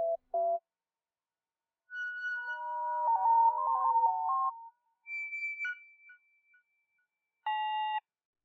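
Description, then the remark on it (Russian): An internet call ringing tone plays alone: a series of clean, synthetic electronic chimes in short melodic bursts with brief gaps between them, clear and moderately loud. “Ладно, позвоню через интернет.”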